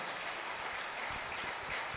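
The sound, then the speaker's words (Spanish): A church audience at a service claps loudly and steadily, a dense crackling wash of many hands that holds at one level for about two seconds, with faint low thumps beneath and no voices rising above it. “Dale un aplauso fuerte.”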